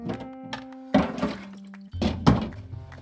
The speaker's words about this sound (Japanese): ちょっと洗い物しながら撮ってるんでうるさくてすいません